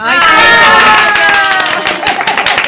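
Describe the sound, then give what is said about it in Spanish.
An audience bursts into loud applause for a guest, mixed with whoops and cheering voices, then the noise thins into scattered individual claps near the end. “El aplauso”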